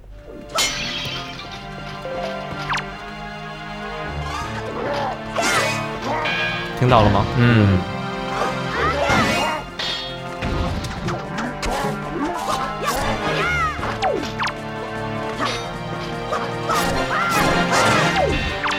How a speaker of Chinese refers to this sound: 这种音效啊、其实就是游戏在反馈给你，好，你现在有确实的命中这个敌人，并且有意思的是，这些音效跟我们的那个游戏音乐其实也是契合的